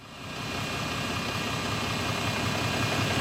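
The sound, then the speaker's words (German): The diesel engine of an MVV route bus turns over at a bus company depot in Schlacht, Ebersberg district, Munich area, Germany, and settles into a loud, steady, rumbling idle, its low throbbing vibration continuing without pause and no voices present. “Noch klingt es meistens so, wenn ein MVV-Linienbus vom Betriebsgelände der Firma Ettenhuber in Schlacht startet.”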